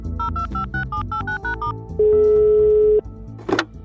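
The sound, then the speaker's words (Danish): A rapid run of telephone dialing beeps, calling a contact from a phone list, gives way to a single long, steady ringing tone lasting about a second, then a brief noisy burst, all clear over a soft background. “Men til gengæld ved jeg lige præcis, hvem på min telefonliste vi skal ringe til.”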